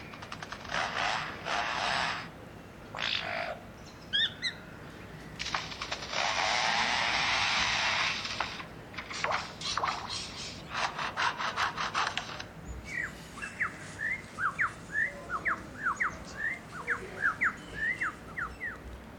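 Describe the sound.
A lyrebird in an Australian forest mimics the chainsaws of foresters working nearby: bursts of harsh, buzzing mechanical whine rise and cut out, then a run of quick chirping, clicking notes follows, loud, with no talking.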